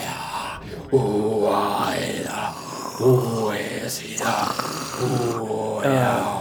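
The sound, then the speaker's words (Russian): A voice growls and howls in low, rough, wavering bursts, imitating a furious, wrathful beast's howl carried on the wind through the snows, fairly loud with short pauses between the drawn-out cries. “ты снова слышишь этот вой а, в, в снегах, в этих ветрах вместе с ветром, этот вой какой-то яростный, гневный, какой-то”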